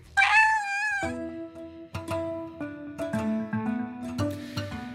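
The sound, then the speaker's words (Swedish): A cat lets out one loud, drawn-out meow at the start, followed by a run of short, steady tonal notes that continue to the end. No one speaks. “Den är i så kallad superposition tills någon öppnar locket och observerar hur det står till med katten.”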